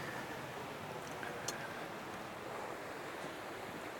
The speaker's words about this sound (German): Man hört sie vielleicht, die drei Fontänen im Wasserhindernis. Sehr charmant von den Verantwortlichen hier, einen so akustisch die ganze Zeit auf die drohende Gefahr hinzuweisen.